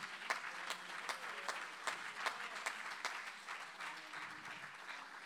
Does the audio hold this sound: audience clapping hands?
yes